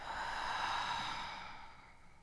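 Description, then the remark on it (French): Soft breathing demonstrating a relaxation breathing exercise: a double inhale followed by one long, deep exhale that fades out gently, with no talking. “Et pour cela, à venir prendre une inspiration en deux fois et une profonde expire.”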